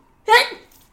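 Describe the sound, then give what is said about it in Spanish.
A single sharp sneeze bursts out, sudden and loud, then trails off quickly into quiet. No talking accompanies it. “Y además, salud, salud.”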